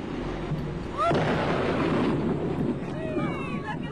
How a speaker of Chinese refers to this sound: 一声巨响后，爆炸的尘烟飞到了十几米高。天空也下起了脂肪雨。